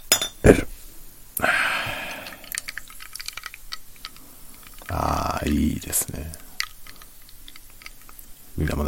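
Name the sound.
glass bottle clinking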